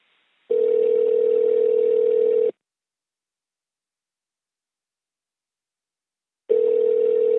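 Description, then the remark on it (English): A telephone ringback tone sounds in two long, steady, fairly loud buzzing bursts, each about two seconds, separated by a long silent gap, with no voices. “Let's now call Pastor Berry and see if he's available.”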